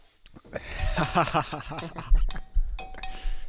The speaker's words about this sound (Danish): Og med det, så tænker jeg, at det er ved at være tid til skål.